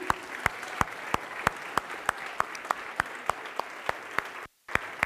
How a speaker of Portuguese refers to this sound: Vamos dar mais um aplauso a Ele, amém?